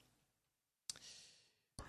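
A breathy yawn: after a moment of near silence, a long airy exhale swells and fades over about a second, then another breath begins. No talking.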